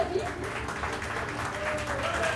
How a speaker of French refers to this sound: Alors voilà, mesdames et messieurs, je vous demande un tonnerre d'applaudissements, s'il vous plaît, pour l'équipage.